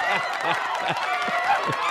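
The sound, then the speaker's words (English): A crowd applauds and cheers in a steady, dense wash of clapping. Voices can be heard mixed into the noise throughout. “Thanks, crowd.”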